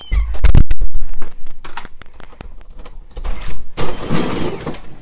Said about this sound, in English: extra scrape because the man left a cooler in front of the door. Ah, there we go.